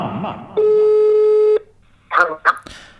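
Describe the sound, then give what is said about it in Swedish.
A single steady telephone ringing tone from a phone call to a mother buzzes for about a second, loud, then cuts off; a voice speaks briefly before it, and short spoken bursts follow after a pause. “fakiren ringer mamma.”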